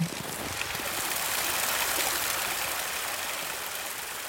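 babbling mountain stream

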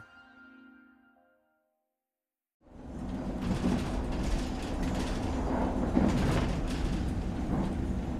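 train interior ambience

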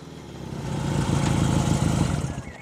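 motorcycle engine running

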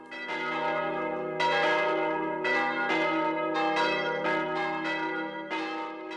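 church bell ringing

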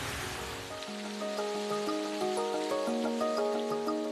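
water splashing

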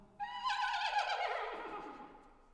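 horse neighing

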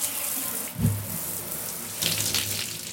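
shower water running

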